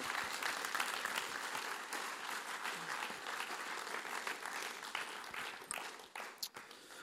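A crowd applauds steadily for several seconds, a dense wash of many hands clapping at once, with a few sharper individual claps standing out toward the end as it starts to thin.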